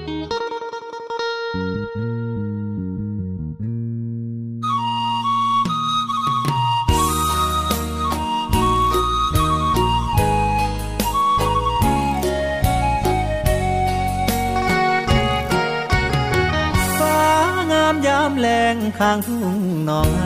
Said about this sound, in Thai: เบรกฟังเพลงกันก่อนช่วงหน้ากลับมาอยู่กับผมต่อช่วงสุดท้ายของรายการครับ